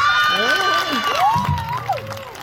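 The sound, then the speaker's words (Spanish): The audience at an award ceremony erupts in loud shouting and cheering as a winner is announced, many voices overlapping with rising and falling whoops, sustained throughout the short burst. “Uno de los gritos es mío, ¿eh?”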